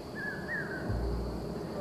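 bird singing

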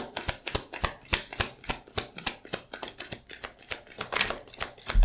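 shuffling tarot cards

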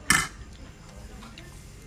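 cutlery clinking on plate

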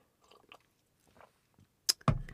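sipping hot tea

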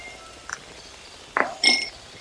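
ice cubes clinking

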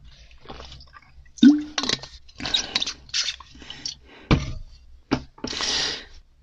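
speaker drinking water

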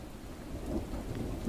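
thunderstorm with heavy rain

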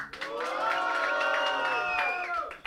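audience cheering and applause

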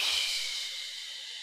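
slow deep exhale

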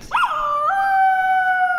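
dog howling and barking

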